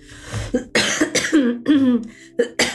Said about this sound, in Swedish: Förlåt min hosta, jag har ju fortfarande eh, varit lite sjuk.